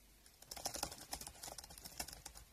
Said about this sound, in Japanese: SNS を開き、キーボードを叩いた。